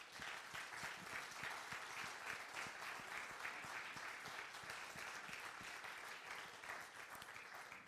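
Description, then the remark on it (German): A church audience applauds the parents in the audience, a dense wash of many hands clapping steadily for several seconds with no voices standing out. “Ich möchte, dass für mal einen großen, großen Applaus geben für diejenigen.”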